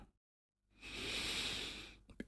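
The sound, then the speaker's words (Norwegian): A single slow, deep breath, in through the nose and out through the mouth, an airy rush that swells and fades over more than a second, followed by a brief soft vocal sound. “Inn gjennom nesa og ut gjennom munnen med en svak lyd.”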